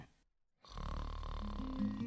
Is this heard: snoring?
yes